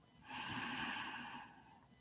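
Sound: deep breath in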